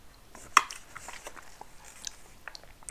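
Quiet chewing of food while eating lunch: soft, irregular crunchy clicks and wet mouth sounds, with one sharper bite early on. No one speaks.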